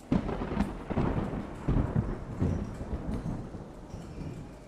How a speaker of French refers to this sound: son de tonnerre résonne.